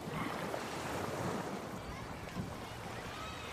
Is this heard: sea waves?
yes